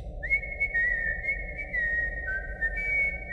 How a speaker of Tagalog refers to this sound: na sipol ng sipol sa gabi